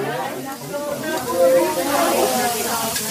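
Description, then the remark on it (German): Meat for a fire-meat dish sizzles steadily on a tabletop grill served at the table with many side dishes, a continuous hiss and crackle that swells slightly midway, with people talking over it. “wie man gehört, ist in der Zwischenzeit der Grill für unser Feuerfleisch aufgetragen worden, zusammen mit ganz vielen Beilagen.”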